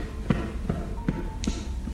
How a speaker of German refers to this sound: Man hört Schritte